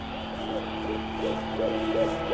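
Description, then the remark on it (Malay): An owl hoots in a steady series of about six short, soft calls, evenly spaced against a quiet night background with a faint constant hum. “Burung-burung hantu itu memerhatikan gerak gemi kami berjalan mengelilingi laman rumah atuk dengan kerlingan yang tajam.”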